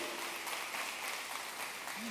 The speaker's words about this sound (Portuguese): Recebe aí, dá uma linda salva de palmas para Jesus.